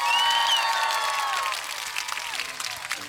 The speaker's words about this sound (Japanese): ではでは、早速スタジオにお呼びしておりますので、拍手で呼んでみましょう。手話のベータ 87A さん、スタジオへようこそ。